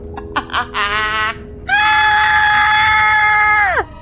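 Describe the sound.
A voice lets out a few short, rising yelps, then a long, loud, sustained high-pitched scream that holds steady for about two seconds before dropping off sharply, like a terrified character shrieking.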